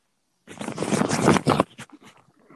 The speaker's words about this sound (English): I'm about to throw on my Huk rain jacket.